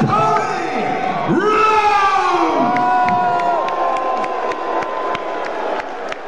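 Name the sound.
audience clapping and cheering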